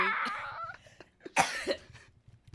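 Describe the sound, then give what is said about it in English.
Someone coughs several times in a raspy fit, with a sharp harsh burst in the middle followed by a couple of smaller coughs trailing off. “It's just gonna be like thirty minutes of you coughing with it's cool.”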